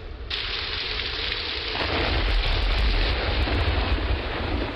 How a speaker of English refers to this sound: It sounds like the rain's really coming down out there.